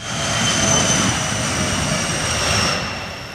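An airplane drones overhead, a steady broad roar with a faint high whine, swelling slightly and then easing off as it passes. No voices.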